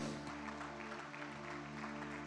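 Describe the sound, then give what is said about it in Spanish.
An audience applauds God at a church service, a dense wash of clapping hands sustained throughout with even loudness, over a low sustained musical drone. “Le da un fuerte aplauso a Dios.”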